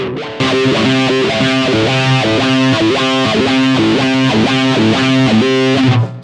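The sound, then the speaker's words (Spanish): A loud distorted electric guitar plays a quick, repeating pattern of finger-tapped notes, steady and rhythmic for several seconds with no voices, ending abruptly. “Pero este ya es con distorsión, ¿no?”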